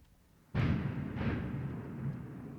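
Loud thunder from a big lightning strike outside cracks in suddenly, a second boom follows close behind, and a deep rolling rumble carries on for several seconds without any voices.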